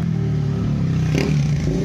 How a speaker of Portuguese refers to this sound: Nossa, gravar no carro é muito barulho.